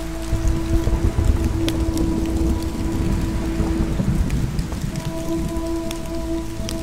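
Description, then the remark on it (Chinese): Heavy rain pours down in a steady, dense hiss, with a deep thunder rumble rolling underneath throughout. No one speaks. “于是隔天午时，龙王并没有准时呼风唤雨，还故意把下雨的时间晚了一个时辰，又让这场雨下得比平常还要大，还要急。”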